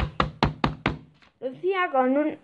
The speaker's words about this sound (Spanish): De pronto tocó alguien a la puerta.